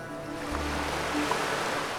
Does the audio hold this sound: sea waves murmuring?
yes